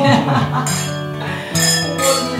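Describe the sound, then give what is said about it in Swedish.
Wine glasses clink together a few times in a toast, each bright tap leaving a ringing tone, with people talking and murmuring. “Och skål. skål. Jag har fått ett glas vin här också. Skål.”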